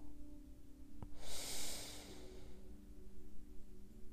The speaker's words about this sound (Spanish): Inhalo profundo y exhalo muy lentamente.